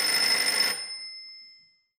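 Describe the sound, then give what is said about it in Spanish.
A single burst of an old-style telephone bell rings out briskly and loudly for under a second, then its bright metallic tones linger and fade away with no voices present. “No atiendas ese teléfono”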